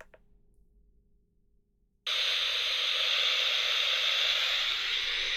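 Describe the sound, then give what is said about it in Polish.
After about two seconds of near silence, loud, steady FM (UKF) radio static hiss switches on abruptly when a player device is switched to its radio mode, and continues evenly to the end, with no voices. “Słyszymy szum ukf”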